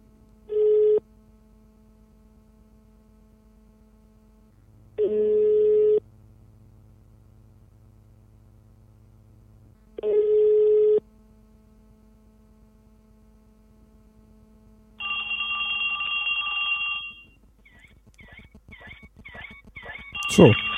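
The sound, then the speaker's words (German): An outgoing call placed from a phone app with a double tap: a ringback tone repeats at steady intervals, three evenly spaced tones over a faint background hum, followed by a brighter electronic tone and rapid beeping chirps as the call connects. “Und dann hören wir mal, Telefon. was passiert.”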